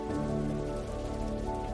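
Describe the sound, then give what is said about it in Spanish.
Steady rain falls in a dense, continuous patter on a surface, soft and even throughout, with a faint low hum beneath and no voices. “La lluvia es curativa, sana tu cuerpo físico, elimina tu cansancio.”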